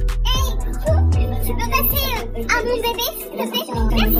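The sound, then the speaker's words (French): A recorded Snapchat voice message run through a heavy voice-changing filter, the speech pitched up and warbling in a squeaky, childlike tone, talking continuously and fairly loudly for a few seconds. “Eh, le filtre, il est poussé à mort.”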